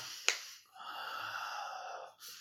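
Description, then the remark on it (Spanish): Someone imitates heavy, menacing breathing, like the killer Michael watching through a window in a film scene: a sharp intake, then a long, raspy, drawn-out breath, with another breath starting right at the end. No speech. “Como si fuera Michael mirándola, respirando, en plan,”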